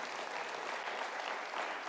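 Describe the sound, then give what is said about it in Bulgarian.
An audience applauds during a sermon, a dense, steady wash of many hands clapping that holds at an even level for the whole moment, with no voices standing out above it. “Ако ръкопляскаш, ръкопляскайте, че наистина вярваш.”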